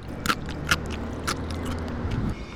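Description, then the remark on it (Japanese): Crisp crunches of someone biting into pickled daikon radish (takuan) from a Japanese bento lunch, three or four sharp bites spaced unevenly over a low, steady background rumble. “ここで一発たくあん”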